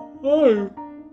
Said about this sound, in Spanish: Uy, el primer bostezo del episodio.